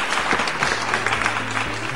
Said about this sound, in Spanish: aplausos, aplausos muchachos. ¿Para quién?